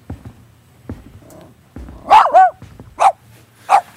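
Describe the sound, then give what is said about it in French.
A dog barks in a quick burst of sharp yips, followed by two more separate barks with short pauses between them, over a quiet background with faint low rumbling. “Euh, vous voyez le chien, par exemple, il est en train de dormir, il n'entendait pas. Qu'est-ce qui se passe”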